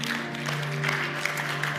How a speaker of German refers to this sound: Lass uns ihm einen warmen Applaus geben.